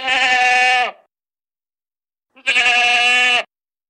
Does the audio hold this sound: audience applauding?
no